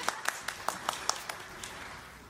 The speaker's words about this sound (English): Stand up, people. you Yeah, give her a round of applause.